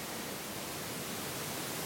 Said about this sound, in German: Wir nehmen die aufgenommene Stille und machen sie lauter. Und horchen in das Rauschen.